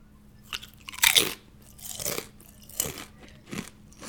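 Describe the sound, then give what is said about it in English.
Loud, crisp crunching of kettle chips being chewed, with several sharp bites spaced about a second apart, each a broad crackly burst, and no talking. “Okay, do you mind not eating those Pringles so loudly, dude?”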